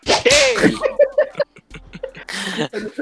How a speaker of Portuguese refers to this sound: Olha o chicote aí, ó.